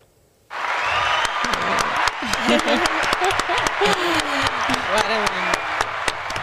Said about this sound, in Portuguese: você tem aplausos aí?